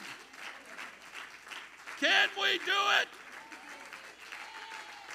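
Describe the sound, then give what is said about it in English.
An audience at Grace Church applauds the Lord with steady, dense clapping throughout, while a man's voice rises loudly over it for about a second in the middle, then the clapping carries on at an even level. “Everybody clap your hands to the Lord this morning.”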